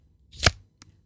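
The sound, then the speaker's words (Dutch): A festival tray made of recycled plastic, being handled, gives a sharp, crackling snap that swells and fades within a fraction of a second, then a faint brief click follows, alone with no voices. “Nee, het, eh, het geluid wat jullie eh, net hoorden is van een plastic festivaltray.”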